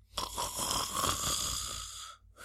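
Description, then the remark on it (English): A person does a vocal imitation of snoring, a single long, rasping, nasal snore lasting about two seconds, fairly loud, followed by a brief breathy tail. “in fact, I will do an impression just so we can understand what snoring is.”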